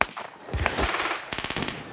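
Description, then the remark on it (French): Rapid bursts of gunfire crackle in quick succession, a dense barrage of sharp shots whizzing around, with a faster rattling volley near the end, loud with no voices. “Sous une pluie de coups de feu qui sifflent autour de moi”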